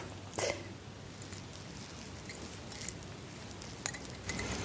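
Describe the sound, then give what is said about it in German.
A screw cap being twisted off a bottle of 2018 Arzheimer Klingenwingert Weißer Burgunder trocken, a VDP Erste Lage white wine: a soft, crackling ratchet of small clicks with a few sharper snaps, fairly quiet, with no voices. “Dann machen wir doch den Wein mal auf jetzt und schauen mal hier in den Arzheimer Klingenwingert.”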